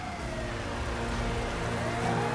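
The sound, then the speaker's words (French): A police siren wails as police cars pull onto a busy main street of a city, its tone rising through a steady roar of rain-like noise and traffic rumble, continuous and fairly faint, with no one speaking. “Sirène hurlante, ils débouchèrent sur une artère principale de la ville.”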